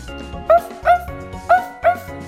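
Spot the dog, in a children's story about firefighters, gives four short, high-pitched barks in two quick pairs, each loud and yappy, over a steady musical background.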